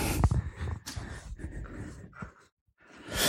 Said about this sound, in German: So, jetzt erhitze ich die Pfanne und während die schön aufheizt, hacke ich erstmal die Zwiebeln in Würfel. Denn so am Stück sind die nachher nicht so gut zu beißen beim Essen.